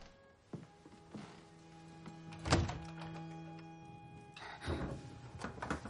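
An angry father opens a door: a few light clicks, then a solid thunk of the latch followed by a rustling swing, with a steady low hum running underneath and no talking.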